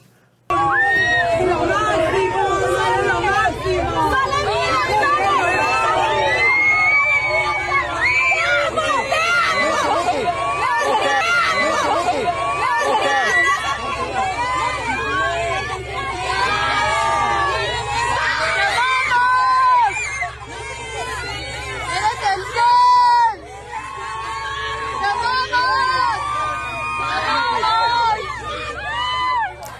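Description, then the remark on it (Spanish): Loud, chaotic crowd commotion as Paloma Cuevas and her celebrity companion go out to a restaurant in Peru to eat ceviche: many overlapping voices chatter and shout at once, with occasional shrill cries rising above a steady low rumble, unbroken for the full half minute. “Miren eh, el zafarrancho que se armó cuando Paloma Cuevas”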